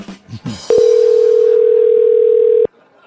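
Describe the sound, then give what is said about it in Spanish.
A single long ring tone from a telephone line as radio station Ritmo 95 calls a listener live, a steady mid-pitched hum lasting about two seconds, loud and unbroken, with no one answering. Brief soft voices murmur just before it starts. “Repica, repica y nadie lo coge.”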